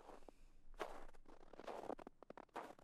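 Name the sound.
approaching footsteps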